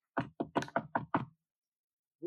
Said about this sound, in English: Here, knock at the door